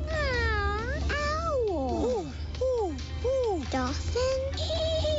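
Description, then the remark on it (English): A person's voice imitates a cat, producing a quick series of loud, drawn-out meows and whiny yowls, one after another with no talking in between. “Cat.”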